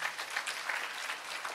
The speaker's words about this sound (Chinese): 阿们吗？阿们的拍手，把荣耀归给主，好不好？